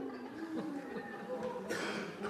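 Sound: people imitating owl hoots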